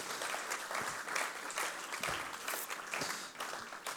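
An audience claps steadily, a dense wash of many hands at an even, sustained loudness for the full few seconds, with no voices standing out.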